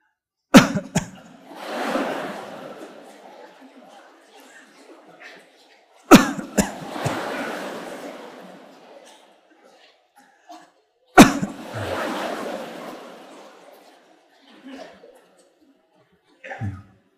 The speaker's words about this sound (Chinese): 就咳嗽三次就可以了哈，不是喉咙痒就不要总咳个没完